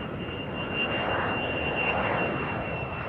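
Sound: airplane taking off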